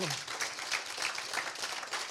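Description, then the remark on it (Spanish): A crowd applauds for God on the Day of Love, many hands clapping in a dense, continuous patter with a few louder bursts, sustained for a couple of seconds. “Bueno, regalémosle a Dios un fuerte aplauso por el Día del Amor.”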